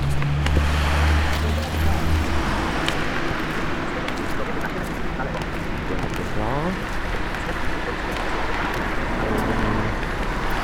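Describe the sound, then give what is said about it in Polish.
A car idles with a low engine rumble, strongest at first, waiting at a street intersection to let pedestrians cross, over a steady wash of street traffic noise; faint voices murmur in the background. “Samochód nas przepuszcza, przechodzimy przez skrzyżowanie kolejne.”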